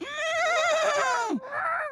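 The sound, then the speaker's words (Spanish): A horse whinnies loudly: one long, quavering neigh that drops in pitch at the end, then a shorter second call right after. No one speaks. “Estaban dos caballos, se ¿eh? ¿ah? Platicando.”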